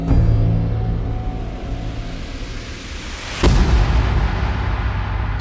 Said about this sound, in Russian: Семипалатинский взрыв. Ядерный полигон устроили на берегу Иртыша в Казахской ССР, в 120 километрах от города Семипалатинск.